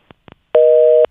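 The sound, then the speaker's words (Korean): A telephone line goes dead as a phone call disconnects: a few soft clicks, then a steady, loud busy tone holds for about half a second with no voices present. “어, 어 전화 끊어졌네요.”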